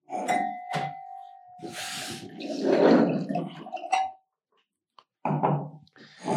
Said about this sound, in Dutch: Ehm, ik denk dat we misschien in het verleden al wel eens ehm, iets voorgesteld hebben eh, uit die streek en misschien ook wel van hetzelfde wijnhuis van Anders Milieus. Ik ga dat even inschenken.